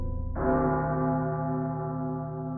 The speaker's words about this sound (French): Le roi est tiré de ses réflexions par le lourd tintement des cloches de la garde, annonçant le retour de ses éclaireurs,